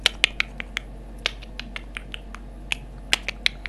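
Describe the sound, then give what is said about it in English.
A rapid, uneven run of sharp, bright clicks, like bat echolocation, about eighteen in a few seconds over a faint low hum, with no voices. “But luckily, the bat has echo location, and so it started to click around.”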